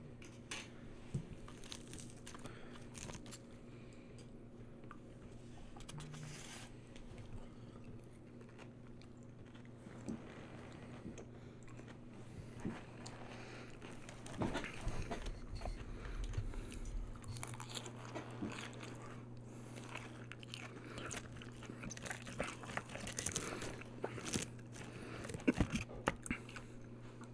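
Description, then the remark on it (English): Steady crunching and chewing as a man eats a crispy waffle, with irregular crisp bites over a low background hum, growing a little louder toward the end. No talking. “seems to be enjoying his waffles. I do. There's nothing better than a crunchy, crispy waffle.”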